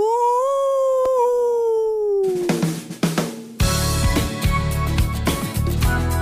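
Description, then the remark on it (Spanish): A long, drawn-out werewolf howl that slowly falls in pitch, heard alone for about two seconds before loud, dense music cuts in and takes over. “hombre lobo. ¡Aú!”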